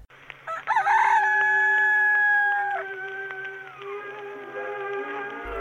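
A rooster crows once, loud and close, with a long sustained cock-a-doodle-doo that rises sharply, holds steady for a couple of seconds, then trails off with no other voices present.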